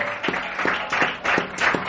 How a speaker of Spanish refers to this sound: Me aplaudo aquí en la pierna porque... Muy bien, eh, pues sí, porque no tienen manos.